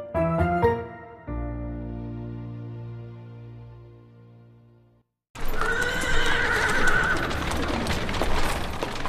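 After a brief passage of ringing musical notes and a pause, horse hooves and carriage wheels clatter and rumble over uneven stone cobblestones in Vienna's inner city in March 1787, a steady, fairly loud street clamour with no talking.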